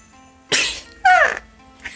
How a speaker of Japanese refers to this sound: くしゃみが出ちゃいました。はい。誰や噂してんのは。